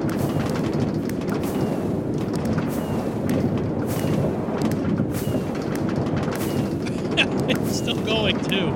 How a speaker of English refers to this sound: Oh, wow. Going up. oh my goodness. It's a lot of fireworks.